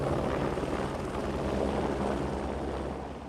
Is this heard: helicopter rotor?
yes